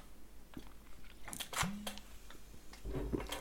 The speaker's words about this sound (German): In dem Sinne erstmal ein Schlückchen, warte.